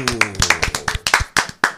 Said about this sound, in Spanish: Un aplauso a Edgar Allan Poe.